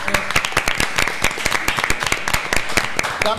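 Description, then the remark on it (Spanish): A crowd applauds, with many overlapping hand claps forming a dense, crackling patter that stays steady and fairly loud for about three seconds. “Muchísimas gracias. Aplausos.”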